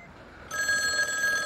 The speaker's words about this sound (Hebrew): יום אחד צלצל הטלפון, ובצד השני של הקו היה קול של אישה שביקשה לדבר עם ינקלה רוטבליט.